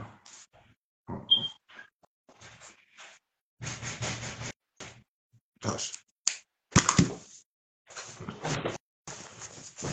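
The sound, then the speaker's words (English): Knocking on a door in irregular bursts of sharp, hollow raps, some clustered quickly together and others spaced apart, moderately loud, with a brief spoken exclamation between them. “I'll oh, get somebody at the door.”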